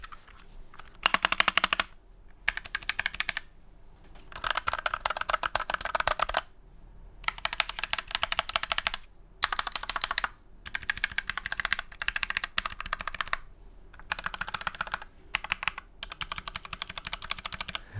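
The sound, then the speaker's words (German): Rapid typing on a thocky mechanical keyboard that is not custom-built, dense bursts of deep, muffled clacks with short pauses between runs, fairly loud, no voices. “Ich habe auf YouTube immer wieder mal Videos gesehen über so Thocky-Tastaturen. Also Tastaturen, die sich halt richtig satisfying anhören.”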